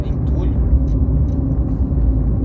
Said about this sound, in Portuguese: Ó, tem um caminhão na minha frente, já, já sei que vou perder uns 10 minutos da minha vida aqui. caminhão gigante, caminhão baú. É, acho que é aqueles que carrega terra